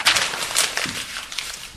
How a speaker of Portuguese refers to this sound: Só estou a amassá-la, fiz uma bolinha.